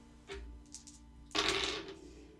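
A few light clicks followed by a brief clattering burst of dice tumbling across a table, rolled for a perception check in a tabletop role-playing game, fairly loud, with no voices.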